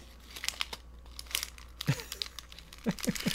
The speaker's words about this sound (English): do I have anything that's like the crinkly on here, Here's, here's, a receipt on your table.